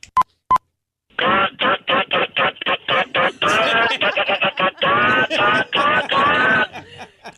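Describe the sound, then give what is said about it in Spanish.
Two short electronic beeps, then a voice imitates a hen laying an egg: a quick string of loud, rhythmic clucks that swell into longer cackling bursts before trailing off. “Una gallina poniendo huevo.”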